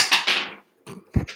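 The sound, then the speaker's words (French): A cat knocks an object over with a short clatter: a couple of bright bangs followed by a few smaller knocks as it settles, with no voices. “Alors, c'est le chat de qui qui a fait tomber un truc là”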